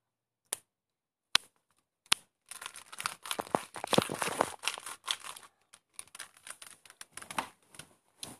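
Three sharp, isolated crackles, then a long stretch of dense crinkling and crunching as chips are crumbled in front of a microphone and a chip bag is rustled, with no talking.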